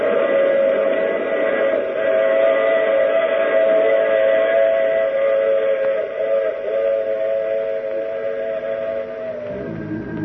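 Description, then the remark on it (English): A loud, sustained steam whistle blares over the rumble of a moving train, holding its chord steadily for around ten seconds before fading slightly at the end. “I take this same train every week at this same time.”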